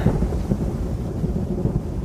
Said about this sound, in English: Ariel goes to the ship and makes a tempest with wind and rain